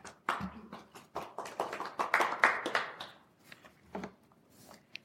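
A short burst of applause from a small group, brisk overlapping claps that swell quickly, then thin out into a few scattered claps before fading away.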